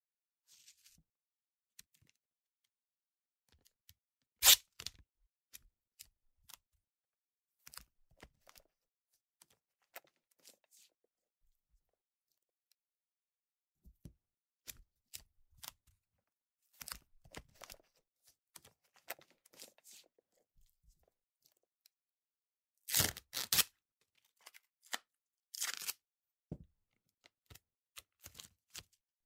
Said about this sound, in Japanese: 私の体を机の上に置いて切り取ったテープを上から貼って、私の体に蓋をする。